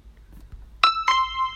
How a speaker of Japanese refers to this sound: 初めてピンポン使いました。